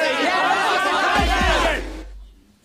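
A loud crowd of many voices shouting and calling over each other in the office of the brokerage firm JT Marlin as stocks soar, in a film from 2000, a dense, frantic roar with a couple of low thuds, then the din cuts off abruptly.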